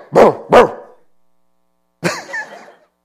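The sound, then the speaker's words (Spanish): A voice imitates an old dog barking while lying down: two quick woofs, a short pause, then a drawn-out, lazier bark trailing off, loud with no other talk. “El perro viejo ya veterano que sabe que un montón de veces ladró y no había nadie.”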